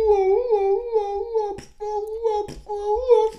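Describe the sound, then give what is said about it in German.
A person imitates a wolf's mating howl, drawing out long, wavering, high-pitched tones in three connected stretches with brief breaths between them. The voice is fairly loud. “meinst du, meinst du, Wölfe stillen beim Vögeln? Meinst du, machen auch so Geräusche beim meinst, Vögeln?”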